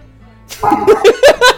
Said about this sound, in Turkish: Duyuyor musunuz bu arada? Yayına. Şeyi duyuyor musunuz? Havlamayı. Evet birazcık geliyor. Ben duymadım.